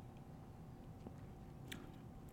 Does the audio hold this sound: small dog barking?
no